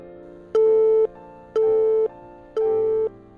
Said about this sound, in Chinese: 然后鼓起勇气给他打了一个电话，打过去之后是通了的，但是通了可能一两声，然后就断了。